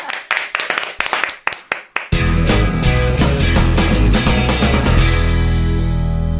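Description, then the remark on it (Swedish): About eight sharp, evenly spaced handclaps thanking a departing guest ring out for two seconds, then a loud musical track with heavy bass and sustained tones takes over and continues to the end. “En stor applåd!”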